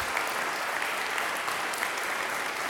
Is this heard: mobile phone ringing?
no